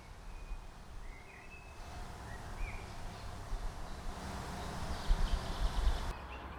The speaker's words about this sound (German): Hört ihr die Vögel? Ich glaube, die Autobahn hört man im Hintergrund.